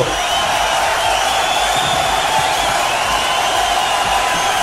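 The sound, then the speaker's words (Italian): An audience applauds an artist, a dense, loud wash of clapping that keeps an even level the whole time, with a few cheers and whoops mixed in. “io direi che è arrivato il momento di fare un grande applauso a quest'artista, vai pubblico, grande applauso!”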